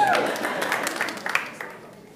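A church audience applauding the Access Youth Group and the associate pastor, a dense crackle of many hands clapping that starts strong and gradually thins and fades over about two seconds, with a faint voice briefly audible at the start.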